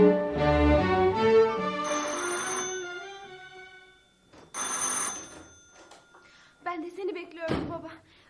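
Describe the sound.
A telephone rings with a bright electronic tone in short bursts, followed by clicks and handling noises of the handset being picked up, with speech-like sounds in the background.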